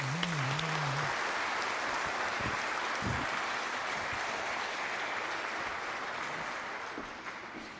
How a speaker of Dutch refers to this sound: Laten we toch klappen voor deze zes mensen, zou ik zeggen.